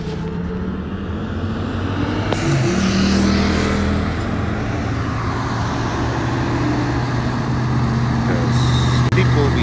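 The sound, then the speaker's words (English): A large Ghostbuster truck rumbles past on a street, its heavy engine droning steadily and loudly amid surrounding traffic noise, with faint, indistinct voices in the background. “And here's this fucking Ghostbuster truck that I've been trying to take a picture of for the longest.”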